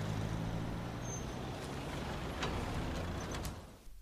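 A heavy engine rumbles steadily on a nearly empty bus, with brief hissing bursts like air brakes releasing near the end as the bus doors close, before the drone begins to fade.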